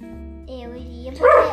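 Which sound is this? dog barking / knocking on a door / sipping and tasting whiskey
dog barking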